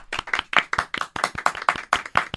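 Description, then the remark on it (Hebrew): Hands clap in a quick, steady rhythm, about a dozen sharp claps with no voices, sounding like a short round of applause from a small group, given for a singer on his 70th birthday during an Eco 99 FM radio special. “חיו כפיים ל….”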